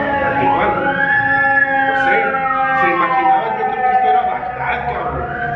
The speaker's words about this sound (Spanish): ahorita, que te interrumpa, va pasando una sirena, es que se van a imaginar. que si es Es lo chingón de aquí. a veces trato de, editar evitar un poco el sonido, güey, pero pues estoy a pie de calle, cabrón.